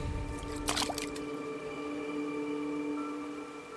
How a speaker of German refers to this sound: mit ihrer Hand in das Wasser greift, strahlt es, als würde es von ihrer Hand aus beleuchtet werden.